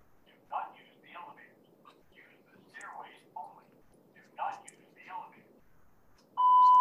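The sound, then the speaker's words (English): Soft, hushed voices murmur during a talk, then a loud, piercing fire alarm tone suddenly blares in at the very end, steady, cutting over the quiet background. “Um, this, there's a, a uh, fire alarm going off.”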